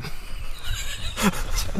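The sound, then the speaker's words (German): A person imitates a sheep bleating, producing a couple of short, wavering voiced bursts, with breathy noise between them. “Oder wie ein, wie ein Schaf.”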